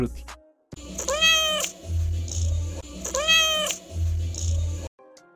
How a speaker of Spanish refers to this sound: En este segundo capítulo tengo a mi primer invitado, mi gatito Tutti